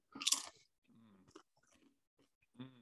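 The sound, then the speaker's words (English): A loud, sharp crunch as a Barnana spicy mango salsa kettle-style chip is bitten, followed by quieter chewing mixed with low muffled hums, then another brief burst of crunching at the end. “So let me give another chip.”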